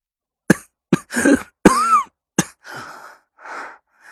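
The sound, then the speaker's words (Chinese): A fit of coughing: five harsh, loud coughs in an uneven burst, some rasping and drawn out, followed by two softer, wheezy breaths as the coughing subsides. “话没说完，又是一阵咳嗽。”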